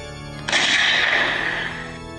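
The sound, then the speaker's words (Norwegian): A single loud, heavy thud of a man's body landing on a floor after diving across an aisle, hitting suddenly and trailing off in a rumbling, noisy decay for about a second. No one speaks. “Et tungt drønn rister gulvet. Som en stor potetsekk som slippes fra en meters høyde.”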